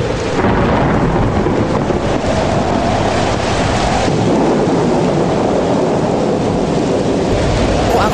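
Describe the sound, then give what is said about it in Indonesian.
A dense, loud roar of heavy rain lashed by strong wind, with a deep gusty rumble underneath, continuous throughout, no voices. “Perempuan itu kembali memutar kepalanya dan matanya dilayangkan ke depan, menatap air hujan yang dihempaskan angin kencang.”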